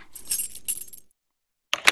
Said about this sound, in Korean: 어? 자물쇠도 있네? 그럼 혹시 이 열쇠가 이 책의 열쇠? 어디 한번 꽂아보자.